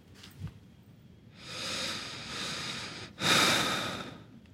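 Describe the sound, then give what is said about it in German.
Heavy, slow breathing of a man who has fallen asleep: a long airy breath followed by a louder, harsher one, with a faint snort-like catch at the start and no talking. “Schwere Atmer, der Junge.”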